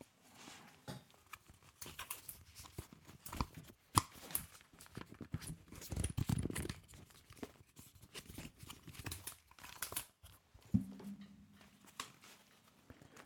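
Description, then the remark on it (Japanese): Over-ear headphones with adjustable ear pads are folded up compactly, producing a rapid, irregular series of plastic clicks and rattling hinge clacks, with brief handling rustles between them and no one speaking. “ちょっとね、カチャカチャ畳む音をね、実演していきたいと思います。”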